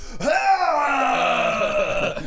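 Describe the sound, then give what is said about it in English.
A person loudly imitates vomiting with a single drawn-out, strained retching groan lasting about two seconds, without any other talk. “You didn't learn after puking on your mom.”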